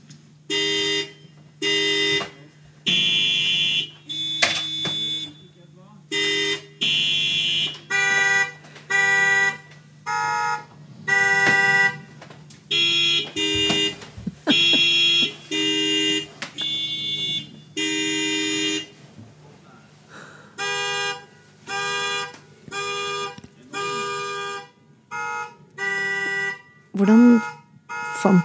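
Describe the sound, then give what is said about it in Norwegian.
Several car horns honk out a melody, short and long blasts at different pitches forming a tune, loud, with brief gaps between notes, played by seven musicians at a rehearsal in Tynset, Nord-Østerdal, Norway. “du fram til de riktige bilhorna?”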